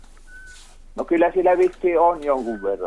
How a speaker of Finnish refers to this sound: Täältä kuuluu nimittäin varpuspöllön vihellystä taustalta. Joo, tuommoista iäntä se piti tuossa puussa muuten.